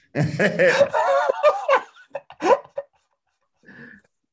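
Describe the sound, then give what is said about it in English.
A dog in the room lets out a rapid string of whiny, yelping vocalizations for a couple of seconds, then falls quiet before one faint, brief squeak. “That better have been a goddamn dog in here.”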